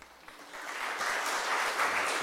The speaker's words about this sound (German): Applaus